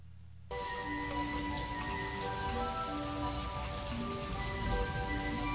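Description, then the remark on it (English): After a brief quiet start, steady rain comes in abruptly and keeps up a dense, even hiss, with faint sustained tones humming underneath. No one speaks. “You believe this rain?”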